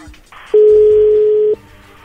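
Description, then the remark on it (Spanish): A telephone ringback tone over a phone line as a call is placed: one loud, steady, mid-pitched tone lasting about a second, with a faint hiss and low rumble before and after. “Bien, entonces ahí le va a marcar.”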